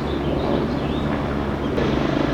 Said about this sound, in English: Uh, the helicopter's back all fucking right, Mexico City. Get your shit together.